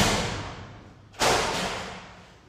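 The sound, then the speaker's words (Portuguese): A door slams shut with a single sharp, loud bang partway through, followed by a lingering tail that slowly fades. A fading rush of noise comes before it, with no voices. “foi a porta que bateu aqui, gente.”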